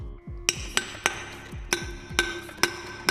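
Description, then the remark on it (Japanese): Seven or eight sharp taps on a metal can from a desk, fairly loud, each leaving a brief tinny ring, struck at a loose, uneven pace with no talking. It is recorded with a smartphone voice memo app as a sound sample. “叩く缶を叩く音”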